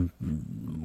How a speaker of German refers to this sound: Ich meine, ich habe mich auch geirrt, das war kein Fisch, ist ein Säugetier, ist ein Wal. Aha. Das ist der Gesang der Buckelwale. Ah ja. Da hat sich einer die Mühe gemacht, da 500 Meter tief. Um äh, aufzunehmen, ja.